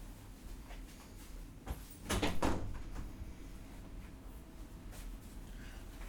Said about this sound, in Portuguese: Deixa eu abrir a porta um pouco.